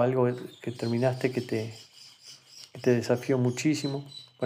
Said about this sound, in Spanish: se deben escuchar los pajaritos de atrás porque no estoy en mi casa en este momento